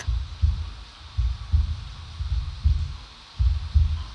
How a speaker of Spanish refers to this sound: Aquel sonido me era familiar era latir del corazón del viejo. El espanto del viejo tenía que ser terrible. Intenté estar tranquilo, pero los latidos se hacían cada vez más y más fuertes.